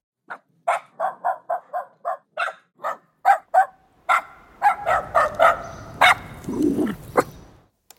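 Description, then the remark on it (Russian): A small dog barks rapidly in a steady series of sharp yaps, fairly loud, then continues with more scattered barks over a low background rumble. The dog is running in a film scene, recorded as a separate sound effect. “Ну, вот, например, вот собачка, где у нас бегает. У нас отдельно собачка, например.”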